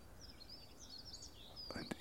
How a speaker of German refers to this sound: Im Hintergrund hört man rufende Amseln, wippende Kohlmeisen, trommelnde Spechte.